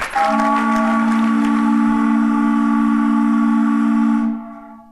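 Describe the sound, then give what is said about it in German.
A single loud foghorn blast sounds alone, a steady, rich droning tone held unbroken for over four seconds before fading out. “Das längste Nebelhorn der Welt.”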